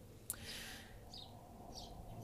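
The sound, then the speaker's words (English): A few brief, faint bird chirps from birds at the bird feeders in a backyard, over a steady low background rumble, scattered irregularly with no one speaking. “I don't know if you guys can hear birds in the background, but just I'm acknowledging that those are birds and they're chirping.”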